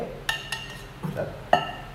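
Ice cubes clink into a glass as they are added to a tea drink being made, in three sharp, ringing taps spaced unevenly, with a softer clatter between them, fairly quiet with no voices.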